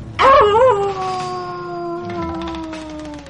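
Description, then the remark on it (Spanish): A wolf lets out a single long howl, wavering briefly at the start and then holding a steady, slowly falling tone. It sounds loud, with no other sounds around it. “Era un lobo hambriento que se acercaba”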